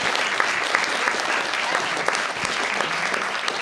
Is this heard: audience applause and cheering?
yes